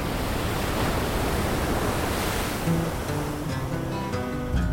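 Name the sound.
sea surf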